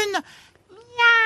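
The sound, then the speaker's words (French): A person imitates a cat, giving two short nasal meows, "miaou, miaou", in quick succession, with the second drawn out slightly longer. “C'est bon, c'est un chat.”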